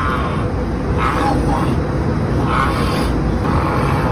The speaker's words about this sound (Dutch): Hij is dus nu aan het grommen.